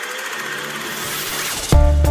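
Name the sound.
street traffic noise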